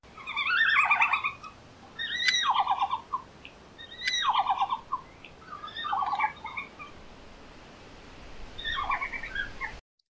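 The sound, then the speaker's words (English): Red panda calls: a series of five bursts of high, twittering squeals and chirps, each lasting about a second with short pauses between, fairly loud over a low background hiss. “But before we get into it, this is what a red panda sounds like.”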